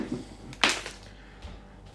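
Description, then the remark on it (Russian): A sharp knock on a refrigerator, one bright slap-like hit followed about a second later by a softer, duller thud, with the refrigerator's faint hum underneath and no talking. “Я по нему стукну быстренько.”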